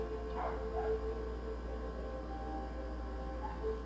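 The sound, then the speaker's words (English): Faint whimpers and a short yip from a neighbor's puppy left outside come in brief high-pitched bursts near the start and again near the end, over a steady low background hum. No one speaks. “Please forgive me the poor pitiful puppy sounds in the background.”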